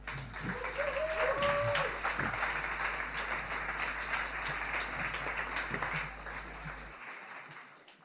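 An audience applauds steadily, a dense wash of many hands clapping at even loudness for several seconds, with a brief whistle or cheer early on, before the sound cuts off.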